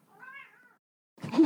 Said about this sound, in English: even through the door you can hear her loud meows